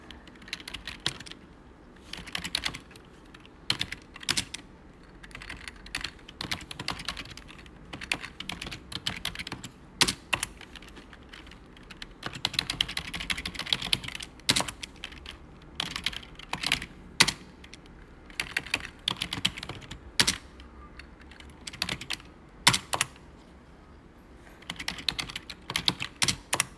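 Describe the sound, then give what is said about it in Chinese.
Steady computer keyboard typing: a long run of crisp, clicky keystrokes in irregular bursts with brief pauses, some sharper louder clacks standing out, and no voices. “我自己特别喜欢那个打字的声音啊，就睡着的时候会听一听一些白白噪音。”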